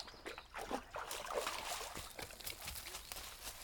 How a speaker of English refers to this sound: sure that water is really good coming out of that drain pipe.